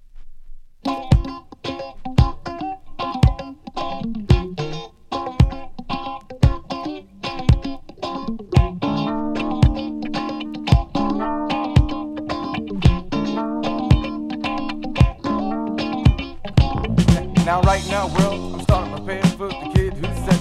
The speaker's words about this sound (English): vous reconnaîtrez peut-être les guitares dans ce nouveau titre envoyé par le même label Reflection Records.